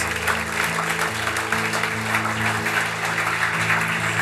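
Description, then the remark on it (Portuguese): An audience applauds Jesus during a sermon in a dense, steady wash of clapping that holds for about four seconds, with sustained low keyboard chords shifting underneath. “Pode aplaudir Jesus.”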